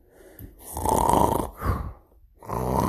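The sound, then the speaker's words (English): Loud, exaggerated snoring of a sleeping giant imitated by a voice: a long rasping snore, a shorter snort, then another drawn-out snore, with no other talking. “So he climbs up onto the table, crocks across very softly, tiptoeing past the snoring giant.”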